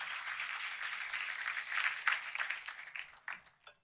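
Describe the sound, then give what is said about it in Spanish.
A church audience applauds the worship team in steady applause, a dense wash of many hands clapping that holds for a few seconds, then thins out into scattered final claps as it fades. “Sí, si quieren aplaudir, por favor.”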